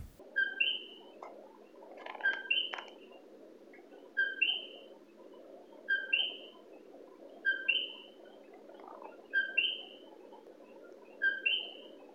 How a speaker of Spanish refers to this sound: Ese primer audio es el coquí que se oye en mi cuarto. Tengo el aire acondicionado prendido y por supuesto las ventanas completamente selladas, son ventanas en cristal que se supone que no permiten pasar el, ruido, pero el coquí